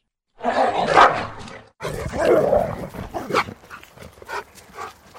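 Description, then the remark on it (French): A dog barks, loud and agitated: a long snarling outburst, a brief pause, then a rapid string of sharper barks and yips that gradually fade in intensity. “Eh bien, la bestiole, qui vue de près ressemble fortement à un chien, vous rate.”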